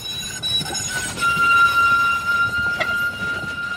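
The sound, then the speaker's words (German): A train rolls past on railway tracks beside a bridge over the zoo near Ettlinger Straße, linking the Südstadt and Südweststadt districts, its broad steady rumble joined by a thin, high metallic squeal from the wheels that comes and goes. “Links der Zoo, rechts die Bahn, Autobahn, Straßenbahn.”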